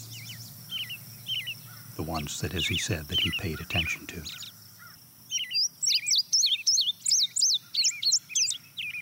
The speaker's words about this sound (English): the next bird to join is a field sparrow. That trill is the field sparrow? That's the field sparrow.